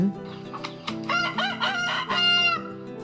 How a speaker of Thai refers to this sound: ว่าแล้วไก่ก็กระโดดขึ้นไปเกาะบนรัว้วเขามองขึ้นไปบนท้องฟ้า แล้วก็เริ่มขัน